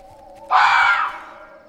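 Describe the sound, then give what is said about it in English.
A single harsh, shrill fox scream, a mating call, bursts out suddenly and loudly, holds for about half a second, then trails off, with a steady low hum underneath and no talking. “It's just foxes. That's their mating call.”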